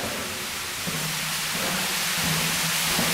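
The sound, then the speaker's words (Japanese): A steady, unbroken roar of rushing water at the top of a waterfall, reached by climbing about 50 m of stairs, fills the scene with a dense hiss and no voices. “つまり要するにこの今 50m 上がってるわけだ階段でで滝の上部までやってまいりました”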